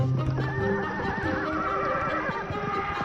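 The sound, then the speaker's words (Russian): A horse whinnies with a long, wavering cry, and hooves clip-clop steadily beneath it. The sound is fairly loud, with no talking. “у нас были кони.”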